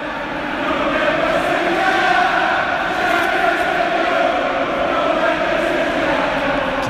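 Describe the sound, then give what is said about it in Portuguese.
Chelsea football fans chant a song to provoke Wenger, who was sitting in the press box, a dense wall of many voices holding a steady, loud, continuous sound for several seconds after a brief quiet start. “E, e, aí a torcida do, do Chelsea viu ele ali e provocava pra caramba, cara. Eles cantavam essa música aí.”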